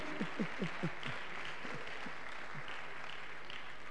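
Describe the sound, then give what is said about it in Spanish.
An audience applauds for the Lord, a steady wash of many hands clapping throughout. A few louder, rhythmic claps stand out at the start before blending into the continuous, moderately loud applause. No one speaks. “Un aplauso para el Señor, amén.”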